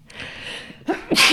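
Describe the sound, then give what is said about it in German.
A single sharp sneeze bursts out, preceded by a quick inhaled buildup, loud and abrupt against a quiet background. “Gesundheit.”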